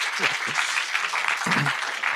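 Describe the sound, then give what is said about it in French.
An audience claps steadily for three volunteers, a dense wash of many hands filling the room, with a few brief voices or cheers rising out of it. “les applaudir peut-être vous voulez, vous là.”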